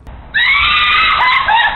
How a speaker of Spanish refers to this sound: Los gritos de una madre desesperada no inquietaron a los que estaban echando gasolina, pero era el preludio de un trágico desenlace.